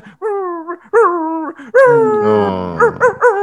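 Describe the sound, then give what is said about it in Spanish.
A voice imitates a dog, giving a few short, rising whimpers, then one long wavering howl and a quick run of yips, fairly loud with no other talk. “Onda, en mi cama, durmiendo, escuchando en la noche,”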